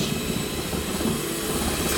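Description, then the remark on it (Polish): A steady, fairly loud electric whir runs without pause from an electric hand mixer spinning at high speed while mixing flour in a pot, with a dense rumbling motor tone and no voices. “delikatnie sobie rozprowadzam takimi ślimakowymi ruchami tak jakbym chciała końcówką miksera narysować ślimaka na dnie garnka zwiniętego a później już”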